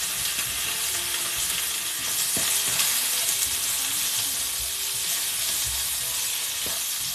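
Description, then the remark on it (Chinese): Food sizzles steadily in a hot pan, a dense, bright crackling hiss that holds at an even loudness, with a few sharper pops and clicks scattered through it and no voices. “对不起，下锅的声音太刺激了。”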